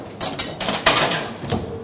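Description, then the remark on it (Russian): Coins dropped into a luggage locker at a railway station in Germany and its key turned: a quick series of bright metallic clinks and clacks, moderately loud, followed by a firmer click, with no one speaking. “Кидаем сюда монетки. Поворачиваем ключ.”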